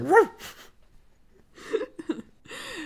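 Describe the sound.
A person imitates a barking dog with a few short, yappy woofs spread across a couple of seconds, fairly loud, with brief pauses between them.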